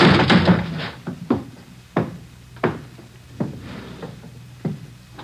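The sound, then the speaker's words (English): Heavy thuds slam against a door about eight times in an uneven rhythm, each a loud, booming impact as the door is kicked down, with no voices. “I never thought I'd have to kick down a door to get you.”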